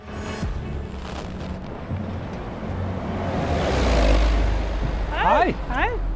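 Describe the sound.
Steady urban traffic rumble on Sveigårdsgatan in Oslo, at a bus stop opposite a paint supply shop, with a vehicle passing and swelling louder, plus a few brief bird chirps near the end; a voice talks faintly beneath the street noise.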